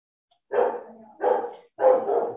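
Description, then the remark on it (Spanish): A small pet dog, somewhat agitated, barks three times in quick succession in the background, each bark a short, sharp burst with a brief gap between them, clear with no talking. “Ay, me disculpan si se escucha de fondo mi perrito que está un poco alborotado, está pendiente de la Libertadores.”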